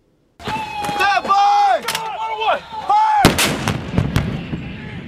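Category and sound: impact, artillery fire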